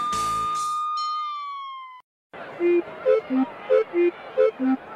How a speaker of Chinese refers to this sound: 我有长长的梯子跟水枪，我是救难小英雄。大家听到这个声音都要让我过，你听听。灭火就是我的工作，聪明的小朋友猜对了吗？我就是消防车。